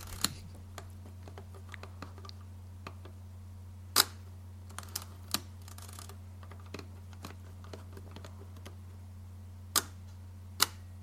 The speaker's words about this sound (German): Leica M4, er sagt, das erste war Spannen, 1000 Stillsekunde, dann nochmal Spannen 60 Stillsekunde und dann nochmal Spannen B, also Bulb.